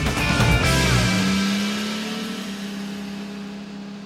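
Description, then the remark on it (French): An old fire truck's engine drones steadily as it drives on a French motorway, opening with a brief rush of revving before settling into a constant low hum and road rumble. “alors que je conduis Désiré sur l'autoroute parce que oui, je l'ai acheté”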